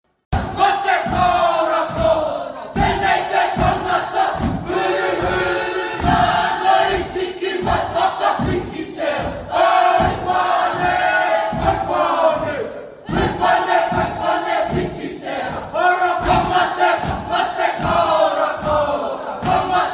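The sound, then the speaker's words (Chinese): Students representing the Maori give an opening performance of a Maori haka welcome dance, chanting in loud, forceful unison, with rhythmic shouts punctuated by steady stamping or slapping beats and a brief break partway through. “这个表演呢，是毛利人的哈卡舞的迎宾舞蹈，我们来听听看。”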